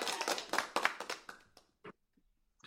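A studio audience on the show Straight Talk breaks into a short burst of clapping, dense and lively at first, then quickly thinning out to a few scattered claps before falling silent.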